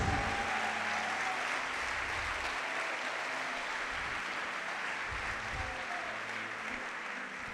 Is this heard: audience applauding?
yes